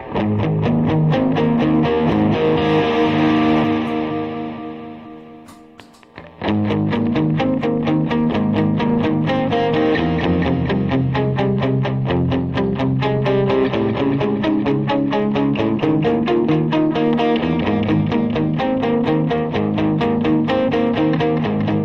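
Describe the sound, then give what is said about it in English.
Loud electric guitar plays driving rock riffs with a steady picked rhythm, fading out briefly around six seconds before kicking back in at full volume. No voices are heard. “the … riffs. Here, here's my riffs. Here's the ones I like to play.”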